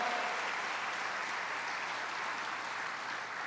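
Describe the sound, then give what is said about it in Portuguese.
An audience applauds God steadily, a dense wash of many hands clapping at an even, sustained level throughout with no voices standing out. “Aplauda Ele de todo o teu coração.”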